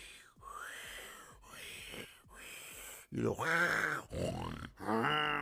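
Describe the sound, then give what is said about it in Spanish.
A voice imitates snoring, starting with soft, airy breaths and swelling into loud, rasping, grunting snores, roughly five cycles in close succession. “de esos que roncamos de menos a más, y empezó, yo me imagino que empezó...”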